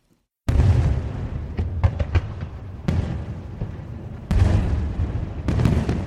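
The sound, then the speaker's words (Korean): Fireworks boom in a rapid series of loud, rumbling blasts, several sharp cracks standing out over a continuous low roar, with bigger bursts arriving every couple of seconds, at a fireworks display in downtown Miryang the day before the new city hall and public stadium opened. “시청과 새 공설운동장이 개장하기 전날 밀양시내에서는 화려한 불꽃놀이가 펼쳐졌다.”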